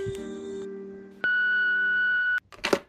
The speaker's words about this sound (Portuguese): Você ligou para o escritório da Catp Records. No momento não podemos atendê-lo. Anote o protocolo e deixe seu recado após o bip.